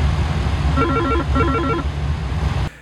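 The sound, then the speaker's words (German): A CPDLC (Controller Pilot Data Link Communication) message chime from air traffic control rings out loudly in an aircraft cockpit in two short bursts of bright, stepped electronic tones over a steady, low engine drone that cuts off abruptly at the end. “Entweder über CPDLC, das ist Controller Pilot Data Link Communication, also quasi per Kurznachricht, das klingelt dann auch einmal ziemlich laut im Cockpit.”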